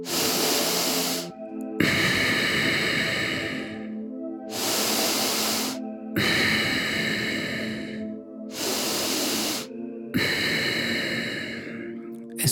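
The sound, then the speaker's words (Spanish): Slow, deep breaths in and out only through the nose during a guided meditation, loud, cycling steadily through about three inhale-and-exhale pairs over a soft, sustained musical drone, with no talking. “Vamos a inhalar profundamente y exhalar únicamente por tu nariz a este ritmo.”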